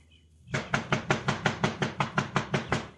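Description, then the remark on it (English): Pancho knocks at a very heavy front door, a rapid, steady series of about a dozen loud knocks, each a solid thud with a woody rap, continuing evenly for over two seconds after a brief silence. “That a very heavy door. It hurt Pancho's knuckles to knock, Cisco.”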